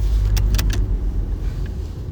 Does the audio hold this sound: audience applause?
no